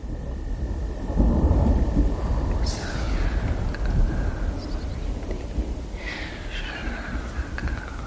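Thunder rolls at night in a long, deep, steady rumble that swells and fades without a sharp crack, while faint chirping crickets or birds come and go higher above it.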